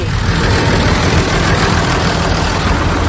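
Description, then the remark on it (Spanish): A heavy diesel tractor engine idles steadily, a continuous low rumble with a loud, unchanging throb and no voices over it. “Voy a ver si me deja subir alguien al tractor.”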